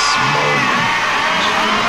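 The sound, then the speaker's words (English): A fired-up crowd roars continuously, with whoops and yells rising out of a dense, steady wall of cheering that stays loud for the whole two seconds. “I've never seen a crowd so fired up. Can I hear some noise inside the place, please?”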